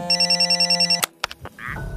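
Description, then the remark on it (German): Lutz Michael Fröhlich's telephone rings with a fast, warbling electronic trill for about a second, then a few sharp clicks and a handset being picked up, followed by a soft rustle. “Wenig später klingelt sein Telefon.”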